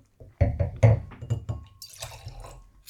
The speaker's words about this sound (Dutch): We schenken de witte even over in een eh, gewoon wijnglas.